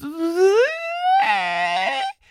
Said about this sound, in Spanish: el ejemplo que pongo a lo mejor es el de cuando inflan un globo y van dejando salir el aire y ustedes jalan la boquilla de ese globo y suena...